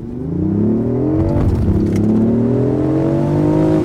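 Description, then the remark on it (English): A powerful hybrid sports car accelerates hard as a traffic light changes, its engine note climbing steadily, dipping briefly at a gear change, then rising again in a loud, continuous surge with no voices. “Do you know what happened to me there as I saw the light change? What? I just wanted to punch it, which is why I shut you up”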